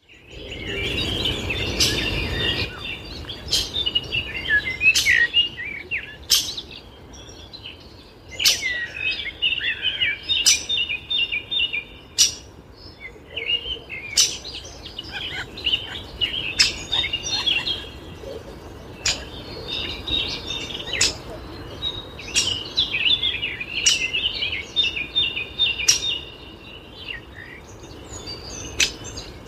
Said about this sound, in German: Man hört schon den Buntspecht von links und von rechts.